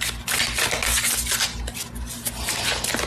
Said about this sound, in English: I have to put this phone in a cup full of dice